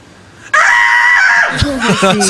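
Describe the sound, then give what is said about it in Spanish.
A loud, sustained shouted war cry bursts in after a brief pause, held high and strained for about a second, then breaking into rougher yelling and laughter-like bursts, delivered as a vocal imitation. “voy a reproducir mi grito de guerra porque capaz que te ayuda, capaz que te llena de coraje para hacerlo.”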